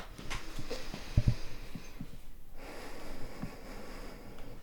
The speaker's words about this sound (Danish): Så du må faktisk gerne slutte, som vi startede med, bare lige at lukke øjnene mm. og øh, tage en dyb vejrtrækning.